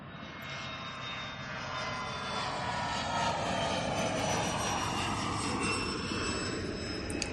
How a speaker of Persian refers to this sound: در این موقع یک هواپیمای سلطنتی هم به زمین می نشیند و معموران دولتی به صف می تا از راه رسیدگان را خوش آمد بگویند.